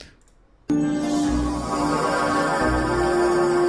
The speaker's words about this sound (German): Das Beamen bei Star Trek.